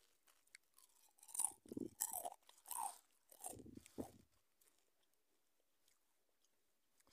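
Crunchy chewing of crisps: a run of loud, crackling bites over the first few seconds, then softer, quieter munching trailing off, with no one talking.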